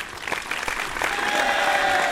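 A canned applause sound effect played from a soundboard: dense, steady crowd clapping that grows a little fuller after the first second, with a thin sustained whistle-like tone threaded through the second half. No one speaks.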